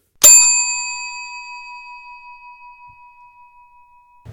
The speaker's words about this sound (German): dieses Ping beamt uns direkt in die neueste Folge von Topf und Deckel